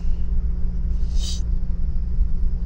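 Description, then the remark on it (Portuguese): Steady low rumble of wind buffeting with city traffic droning underneath, plus a brief high-pitched squeak partway through. No one speaks. “Vocês vão ficar ouvindo de fundo aí alguma coisa, o barulho do vento, a cidade acontecendo.”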